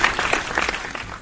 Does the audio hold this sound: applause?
yes